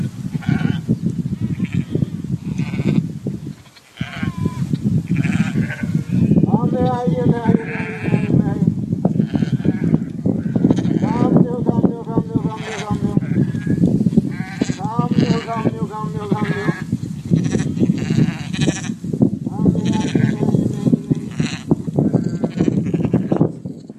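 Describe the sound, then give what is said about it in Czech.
Sheep bleat repeatedly and loudly, several overlapping wavering calls, over a steady rumble of flock noise and movement as the flock walks into fog. “ve videu vystupovaly ovce, všimli jste si, byli tak inteligentní, že šli do mlhy a neviděli nic, a, eh, ale reagovali na ten pastýřův hlas.”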